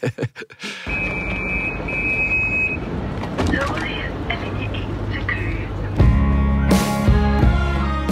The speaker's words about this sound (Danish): Altså, på vores sidste blade, Børn om tabte tid, der det sidste nummer, det er det slutter med sådan en S-togslyd. Altså det der linje E mod Køge.